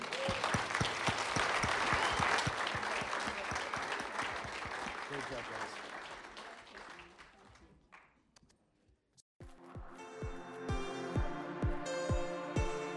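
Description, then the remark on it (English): A church audience applauds loudly and steadily for several seconds, the clapping thinning out before music with a steady beat starts and carries on to the end. “Uh, have a great day and give these guys a hand, all right?”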